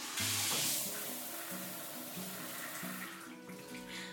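Shower water runs in a steady, hissing rush for a few seconds, loud, with a soft stepping musical tone underneath.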